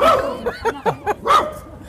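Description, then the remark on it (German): A dog barks in a quick run of about five or six short, yappy barks, fairly loud, with no one talking over it. “Das war ein Zeichen. Der fühlte sich beleidigt.”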